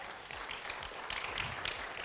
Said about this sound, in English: Actually, by the way, could we give them a big round of applause? That was uh, really amazing there today.